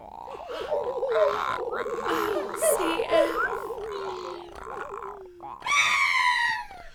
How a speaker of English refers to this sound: what was that? Ah, it's a bald eagle! And it's carrying a rattlesnake in its jaws.